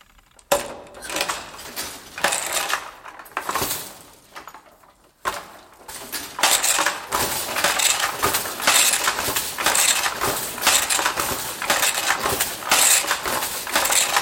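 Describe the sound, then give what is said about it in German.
A wooden loom, in use until 1987 and about three large steps long per side, worked by a seated weaver demonstrating weaving: a punch card sets which shafts lift, the shuttle is shot through and beaten in. A steady run of clattering, knocking strokes with sliding and clinking mechanical noise, loud and continuous after a brief, sparser start. No one speaks. “Er sitzt auf einer Art Bank und demonstriert eindrucksvoll, wie das Weben funktioniert.”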